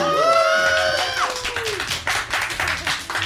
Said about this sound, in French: La foule est en délire, c'est vraiment incroyable. Euh, on est autour de cette table, c'est 4000 personnes à peu près.